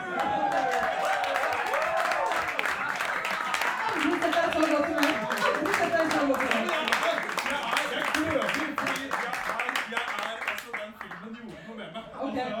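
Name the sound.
audience applauding and cheering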